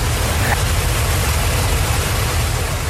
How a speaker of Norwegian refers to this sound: Men snart hørte hun motordur.